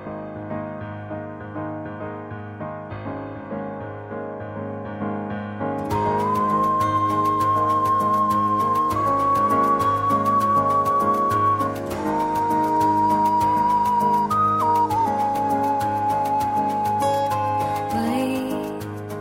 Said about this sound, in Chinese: 听到这支歌